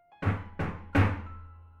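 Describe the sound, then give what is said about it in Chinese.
Three heavy knocks on the door of a small bathroom, heard from the shower less than a step away, evenly spaced about a second apart, each a dull low thud with a brief ringing decay; the third knock is the loudest. “接着敲门声又响起来了，”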